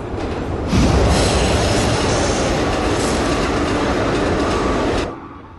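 A subway train rumbles along loudly and steadily, a dense roar of wheels and rails that holds for about five seconds, then drops away abruptly near the end.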